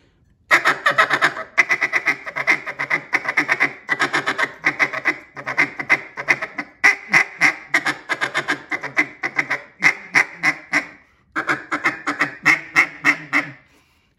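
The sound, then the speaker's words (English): A duck call rattles out a fast, steady feed chatter mixed with short hen quacks and clucks as a filler call, rhythmic bursts with brief pauses, loud with no talking. “have your buddy just doing that little short feed with a little bit of hen, uh, and that's that little young hen just, and that's what I call filler sound.”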